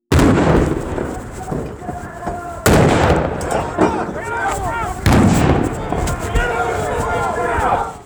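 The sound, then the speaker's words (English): Three loud, sharp flashbang grenade blasts go off a few seconds apart in a parking lot, each leaving a ringing wash of noise, while several voices shout urgently throughout as FBI agents rush out with guns drawn. “Flashbang grenades explode around them as FBI agents sprint out, guns drawn.”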